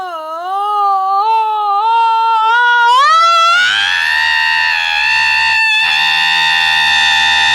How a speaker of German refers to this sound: Mensch, ein Wecker, der schreit. Und das nennt der Junge recht sonderbar.